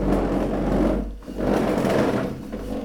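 A toddler who has just started walking pushes a small chair along at his side; it scrapes and rumbles across the floor in two steady pushes with a brief pause between them and no voices.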